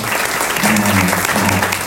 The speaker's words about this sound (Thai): ก็อยากให้ทุกคนปรบมือให้บทที่หนึจากอาจารย์เอสเอครับนะครับ